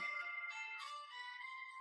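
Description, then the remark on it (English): A phone ringtone plays on its own, a steady electronic melody of bright sustained tones that shift pitch partway through, sounding fairly quiet. “Why is that thing ringing?”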